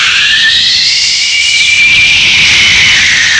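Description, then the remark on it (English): A loud jet engine roars with a broad, hissing whoosh, its high whine rising and then slowly falling as it passes by, steady and continuous with no voices. “the jet engine came along with a. Whoosh,”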